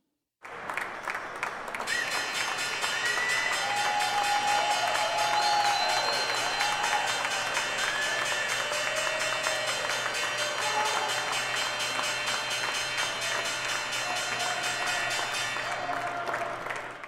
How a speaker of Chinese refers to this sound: 是的，这是纽约股票交易所开盘的钟声。其实不只是纽约股市，纳斯达克开盘也会敲钟。